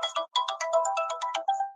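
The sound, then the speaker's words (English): A phone ringtone plays a quick, bright electronic melody of rapid tonal notes, fairly loud, with no talking over it, as the speaker's daughter calls. “oh, somebody phone ring. Yeah, that's my daughter calling Uh, my fault.”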